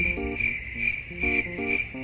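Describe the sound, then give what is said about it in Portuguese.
Crickets trill steadily at a high pitch over the low, intermittent hum and murmur of a town square, with no one speaking. “Nós estamos gravando aqui, na na praça, só nós dois”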